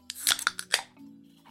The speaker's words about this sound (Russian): Ты заметил, мы специально теперь с тобой э, открываем банки для того, чтобы это звук был отдельный, чтобы мне потом на монтаже можно было для склейки Инстаграма вырезать этот кусочек удобнее, не искать его по всему месту, а такой чик.